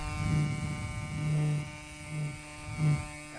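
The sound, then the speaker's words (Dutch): A pneumatic fossil preparation tool, used for chipping away coarse sediment and blowing it off at the same time, buzzes steadily with a low mechanical hum, swelling in four short bursts of blowing air, with no voices. “Dus en je kan daarmee hakken en je blaast daarmee gelijk het gras”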